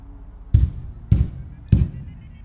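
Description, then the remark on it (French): Three heavy, evenly spaced metallic knocks of a huge, cold, rusty iron door knocker banging against a gargantuan door, each a loud thud with a brief ringing edge, with no voices. “Je saisis le hortoir froid et rouillé et le tapai contre la porte.”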